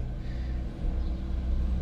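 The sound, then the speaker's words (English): A truck rumbles past, a steady low-frequency engine drone that swells slightly toward the end, with no talking over it. “There's another truck goes by”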